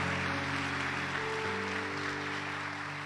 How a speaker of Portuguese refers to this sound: Aleluia, se é para aplaudir o Senhor, aplauda.